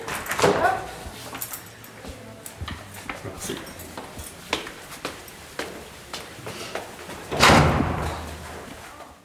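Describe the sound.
A heavy secure door clanks and latches with a loud bang near the start, followed by a series of sharp clicks and knocks, then another loud slam toward the end, with a brief spoken word in between.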